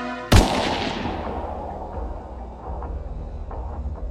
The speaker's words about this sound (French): Il tire.